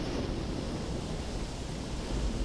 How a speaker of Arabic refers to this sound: تستيقظ على صوت الرعد تنتبه أن أثناء نومك تسلل الإعصار نحوك الموج اعتلى المطر ينهمر